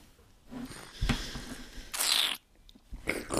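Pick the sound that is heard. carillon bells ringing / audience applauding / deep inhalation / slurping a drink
slurping a drink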